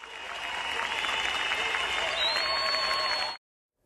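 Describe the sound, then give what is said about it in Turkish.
A large concert audience gives a standing ovation at the Harbiye Cemil Topuzlu Open-Air Theatre, applauding in a dense, sustained roar of clapping, with cheers and a piercing whistle riding on top, before the sound cuts off abruptly. “Sanatçı konserinde ayakta alkışlandı.”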